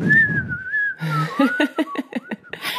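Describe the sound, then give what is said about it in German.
Someone whistles an imitation of birdsong: a sustained wavering tone, then a quick run of chirpy, twittering notes with a breathy, laugh-like burst at the end. Short and fairly loud, with no talking. “Kurzes Vogelgezwitscher.”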